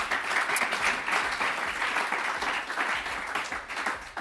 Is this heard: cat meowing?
no